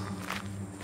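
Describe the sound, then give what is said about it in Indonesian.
Quick footsteps patter in a short, rapid burst against a steady low hum, fairly soft, with no one speaking, heard just after midnight at a fishing spot during a flood. “Sekitar jam 12 lewat itu mulai ada bunyi seperti seperti orang berjalan cepat cepat cepat.”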